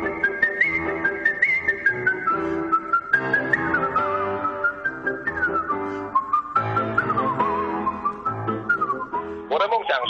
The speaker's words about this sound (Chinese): 他最高纪录一分钟可以吹三百个音符，成为世界上第一位把口哨吹进国家音乐厅表演的人。